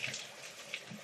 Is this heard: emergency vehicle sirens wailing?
no